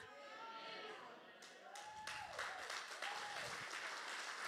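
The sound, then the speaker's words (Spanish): An audience applauds God steadily, a dense wash of many hands clapping that swells slightly partway through, with voices calling out over it. “Apláudele a Dios y le vas a aplaudir.”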